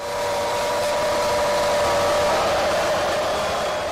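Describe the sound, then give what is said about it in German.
Football fans roaring in a stadium: a loud, steady, dense wall of crowd noise with a sustained held tone running through it, slightly distorted and unbroken for the whole stretch. “Aber so ist es halt, wenn ganz viele Fußballfans brüllen.”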